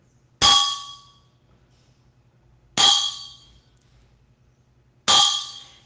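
A church bell tolls three times at a slow, even pace, each loud metallic clang ringing out and fading before the next, with a faint low hum underneath.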